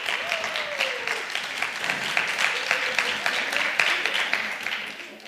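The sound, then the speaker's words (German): A live audience claps steadily for several seconds as those from Erlangen are asked to clap, a dense, fairly loud patter of many hands with a few faint voices and a brief whoop mixed in. “Wer kommt denn mal so aus, wer kommt aus Erlangen direkt? Einmal klatschen.”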